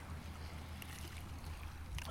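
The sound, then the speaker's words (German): Sea water splashes and laps steadily, with a constant low rumble underneath and a couple of brighter splashes breaking through. No one speaks. “Hier jetzt gerade am Meer.”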